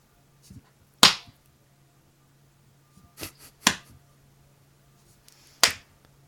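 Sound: finger snapping as applause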